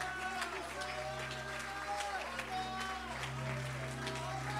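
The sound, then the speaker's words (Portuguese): An audience at a Portuguese-language church service claps steadily to glorify the Father, a dense wash of applause running throughout, while a man's voice speaks loudly over it and sustained music tones hum underneath. “Dê um aplauso, glorifique ao Pai, honre ao Pai, honre ao Pai, honre ao Pai, exalte ao Pai.”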